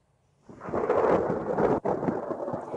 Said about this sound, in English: Yes, that is the sound of thunder or thunder snow, which can happen in some winter storms.